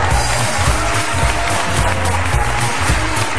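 Sustained applause from a large standing audience welcoming actor Lino Guanciale, dense and steady clapping filling the space for several seconds, loud with no pause or talking over it.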